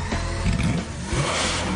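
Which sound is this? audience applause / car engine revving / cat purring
car engine revving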